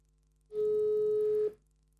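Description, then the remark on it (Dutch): A single steady telephone ringback tone lasting about a second, from an outgoing call on speakerphone, loud and slightly buzzy, with faint hum before and after and no talking. “En anders ga ik hem zelf weer bellen.”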